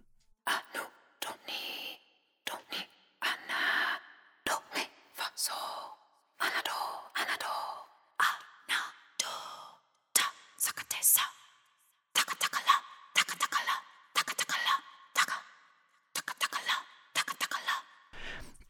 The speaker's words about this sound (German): jetzt komm mal zu dem Flüstern.